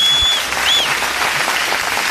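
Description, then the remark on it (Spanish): A recorded applause sound effect played on air by a host: a burst of crowd applause plays steadily throughout, dense clapping at a consistent loud level, with a couple of brief high whistles near the start. “fíjate que me merezco mis aplausos. Yo por aquí los tengo. Ahí está.”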